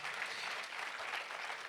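An audience claps steadily, a dense, even wash of many hands with no pauses, sustained and moderately loud throughout.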